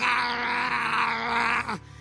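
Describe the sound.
A person imitates a dog named Piche with one loud, strained, whining growl, held at a steady pitch for under two seconds before sliding downward and cutting off, with no other talking.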